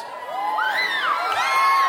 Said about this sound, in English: I keep thinking there must be something behind me because you're all like cheering all of a sudden.